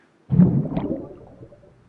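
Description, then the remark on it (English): A cannonball jump into a swimming pool, heard through an underwater microphone: one sudden, muffled, boomy impact followed by a churning, bubbly rush that fades away over a second or so. “So here's what the, the underwater mic sounds like.”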